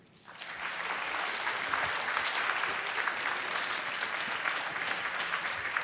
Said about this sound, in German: Sie ist heute bei uns. Begrüßen Sie sie mit einem ganz wundervollen Applaus. Hier kommt für Sie Tijan Onaran. Herzlich willkommen.